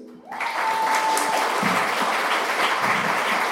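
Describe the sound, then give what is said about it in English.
An audience bursts into loud, sustained applause welcoming a guest, a dense wash of clapping that starts abruptly and keeps going steadily for several seconds with a few faint cheers mixed in. “So, without further ado, please give a huge round of applause to my brother,”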